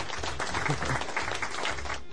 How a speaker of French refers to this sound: Et puis bah écoute, comme je te l'ai déjà dit, tiens, je t'envoie les applaudissements.